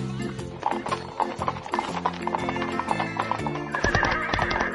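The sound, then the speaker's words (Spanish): Horse hooves pound along in a steady clip-clop while a horse neighs, loud, with layered harmonic tones sounding over the rhythmic beats. “Al castellano montado en caballo, ¿eh? con sus galones ahí, intentando apresar a su presa.”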